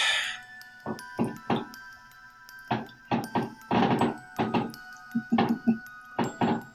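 Fireworks going off outside, a rapid, irregular string of muffled bangs and pops with a faint steady hum beneath and no voices.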